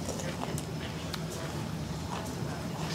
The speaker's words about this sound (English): Can you stop crunching?